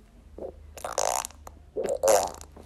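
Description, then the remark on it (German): A voice imitates farting with the mouth: a few sputtering, buzzy raspberry bursts, two of them longer and louder, with no speech. “Also, by the way, ich furze jetzt nicht, sondern ich mache das alles mit meinem Mund.”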